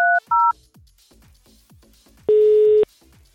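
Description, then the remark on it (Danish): Two short electronic dialing beeps in quick succession, then a steady ringing tone on the line about half a second long, heard clearly and alone against faint background. “så øh, får vi en til at ringe til Anders og udgive sig for at være øh, den arbejdsgiver”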